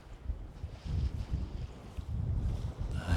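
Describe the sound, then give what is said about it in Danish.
Heavy wind buffets the microphone outdoors during a walk in early 2019, producing deep, rumbling gusts that surge and fade continuously, with a brief hiss of air near the end and no voices. “sikkert en masse blæst i mikrofonen også.”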